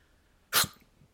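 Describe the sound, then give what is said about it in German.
A single short, sharp sneeze-like burst, made by a person mimicking a dog's sneeze: a quick breathy snort, then near silence. “Weißt du, wie ein Hund niest? Kannst du das nachmachen?”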